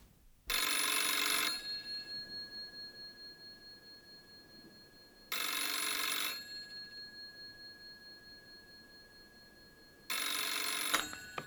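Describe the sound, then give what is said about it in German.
A telephone in a phone booth beside a bench at the edge of a city park rings in three loud, rattling bursts of about a second each, separated by long pauses, with a faint ringing tail after each burst and no voices. “Hier war er sicher, dachte er, als nebenan in der Telefonzelle das Telefon läutete.”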